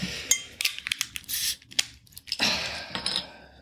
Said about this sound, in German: Ich glaube, ich würde gerne anfangen mit dem Sagres. Gut. Mit dem portugiesischen Bier fangen wir an. Ich mach's mal auf.